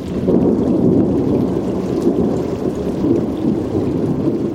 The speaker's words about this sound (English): Producer Mark Seth Lender recorded this out of season thunderstorm as it passed over Long Island Sound.